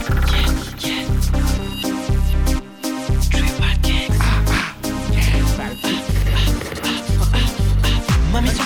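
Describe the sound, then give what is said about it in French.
A French dance song plays loud, driven by a steady pounding bass beat in repeating blocks under bright, busy synths and percussion, with no one talking over it. “il nous sort un très bon son qu'on aime beaucoup”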